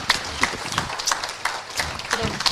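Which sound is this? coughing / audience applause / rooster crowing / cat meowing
audience applause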